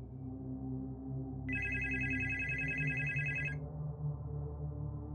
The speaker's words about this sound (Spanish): Al regresar a mi habitación, recibí una llamada telefónica.